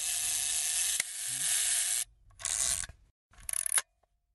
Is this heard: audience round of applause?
no